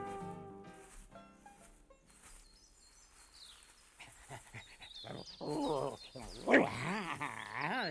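A dog barks in a run of sharp, repeated yaps that grow louder and busier toward the end, starting after a quieter, tonal stretch.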